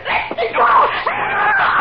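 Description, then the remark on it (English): A woman screams loudly, a continuous, wavering cry that runs for about two seconds with only a brief catch near the start. “I'm just trying to stop her yelling.”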